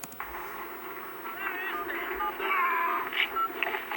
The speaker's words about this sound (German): diese Frequenzen, die ihr da hört, entsprechen den Wähltönen für die Ziffer 0171 und dann vermutlich 5